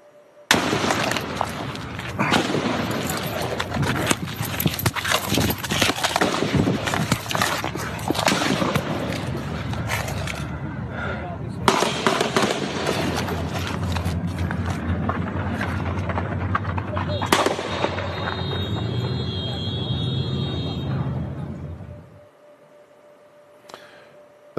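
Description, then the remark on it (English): A long, relentless barrage of gunshots, dozens of sharp cracks fired in rapid bursts for about twenty seconds, loud and echoing outdoors at a baseball field during the shooting by James Hodgkinson in which Steve Scalise was nearly assassinated, before stopping abruptly into quiet. “Do you remember James Hodgkinson and what happened on a baseball field not far from where I'm sitting, let's listen to the audio that is the sound of Steve Scalise almost being assassinated.”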